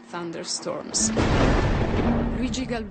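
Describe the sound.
A deep, rolling rumble of thunder swells up about a second in and keeps booming loudly underneath a man's steady voice as he talks over it.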